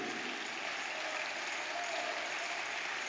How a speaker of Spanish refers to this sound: Si están dando un aplauso, no le sale.